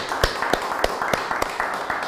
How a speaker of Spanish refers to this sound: Aplauda, aplauda, aplauda mientras nos despedimos. Siga aplaudiendo, siga aplaudiendo.